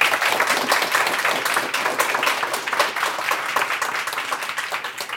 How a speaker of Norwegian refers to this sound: Jeg synes, Kanskje vi skal ta den applausøvelsen akkurat nå, eller? Ja.